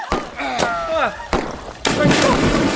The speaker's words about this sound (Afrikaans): Ek gaan skiet.